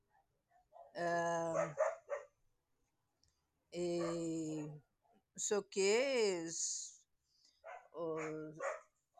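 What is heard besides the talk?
dogs barking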